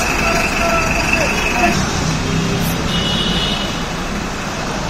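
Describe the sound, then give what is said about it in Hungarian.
A bus conductor leans out of the bus's single door at a stop and shouts the destination loudly over busy street traffic, with engines rumbling and vehicles passing. “Tehát a, a fickó ló ki a buszból az egyetlen ajtón, mert minden buszon csak egy ajtó van, és azt így kiabálja, és akkor ebből fejtsd meg, hogy merre megy.”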